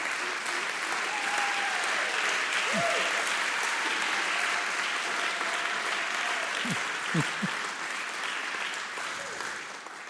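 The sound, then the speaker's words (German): An audience claps steadily and loudly for about ten seconds for two married couples being installed into the leadership team of Vignette Bern, a dense wash of hand claps with a few faint whoops or cheers rising above it before it slowly tapers. “Darf ich für die beiden Ehepaare einfach um einen fetten Applaus bitten?”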